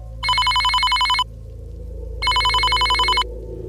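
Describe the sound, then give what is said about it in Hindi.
A phone rings at about eight o'clock with a call from someone standing outside, in two bursts of rapid, trilling bell tones, each lasting about a second with a short pause between, loud against a low background hum. “ठीक आठ बजे के करीब बैल बजती है वो बाहर से फोन करते हैं”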